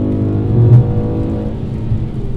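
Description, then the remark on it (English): A car engine drones steadily, loud and low, with a brief swell as another vehicle, a Subaru, rushes past on the Murray Valley Highway. No one speaks. “We've just had a uh, a Subaru.”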